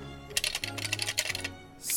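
Pencils rattle inside a tin pencil case holding only pencils, a burst of quick, light clicks and clatters lasting about a second over a low steady hum, followed by a brief soft rush.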